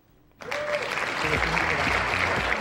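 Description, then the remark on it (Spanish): An audience bursts into sustained applause after a brief quiet lead-in, a dense wash of clapping that holds steady and loud to the end, with some faint voices mixed underneath. “Así que un aplauso para el loco, de verdad.”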